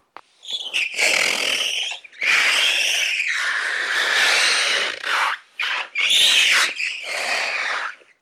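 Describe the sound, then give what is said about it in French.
Loud, shrill rubbery squealing from an old ribbed hot-water bottle rubbed on a wall wetted with spit, a Foley effect for a chase scene, in four long, wavering bursts separated by brief pauses, with no talking. “Pour augmenter les, à l'image une, une poursuite qui est un peu molle, je trouve un système très facile, c'est le coup de la bouillotte. une bouillotte, une vieille bouillotte striée.”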